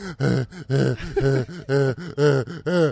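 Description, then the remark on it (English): A person imitates shallow, panicked breathing: about seven quick, voiced gasping breaths in a steady, hurried rhythm, fairly loud, with no speech. “if you spend all day going like this”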